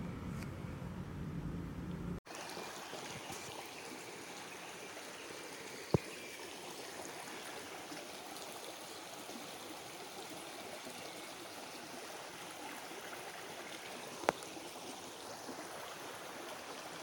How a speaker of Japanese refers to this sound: めちゃくちゃ美しいもうね蝶々がいっぱい飛んでて水もすっごいクリーンで綺麗で音が鳥の鳴き声と水の音しかしないのえちょっとねそこみんなに聞かせたくてそこの音録音したのでちょっと聞いてください。